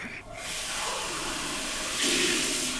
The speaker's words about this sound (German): Ich trinke nochmal einen Schluck Wasser.